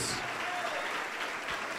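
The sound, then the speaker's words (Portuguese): A church audience applauds in the name of the Lord Jesus as people come forward to give their lives to Jesus, a dense, continuous wash of many hands clapping at an even loudness for the whole stretch, with no one speaking over it. “Vamos aplaudir mais ao nome do Senhor Jesus.”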